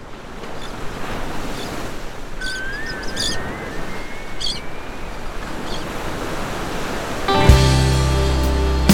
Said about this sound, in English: it's time to take a dip down here is the sound of the ocean